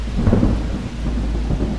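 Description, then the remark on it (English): Steady, heavy rain hisses continuously, fairly loud, with a deep low rumble like thunder rolling underneath. No one speaks. “When I awoke, it was still raining.”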